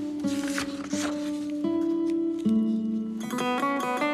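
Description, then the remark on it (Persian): Two soft papery rustles of the pages of notebook 89 being turned, one after another early on, set beneath steady sustained music tones that carry on and grow brighter toward the end. “ادامه دفتر 89 ورق میزنم”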